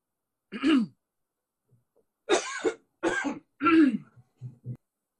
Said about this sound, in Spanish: Sí, tengo un poquito de, tos. No te preocupes.